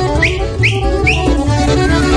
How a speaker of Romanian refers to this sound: O să fluier.